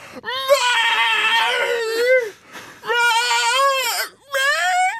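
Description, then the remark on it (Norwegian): A person imitates a hungry cat asking for food: three loud, whiny, drawn-out meows, the first longest, each rising and falling in pitch, with short pauses between. “Det er akkurat sånn katta vil høre ut når hun vil ha mat.”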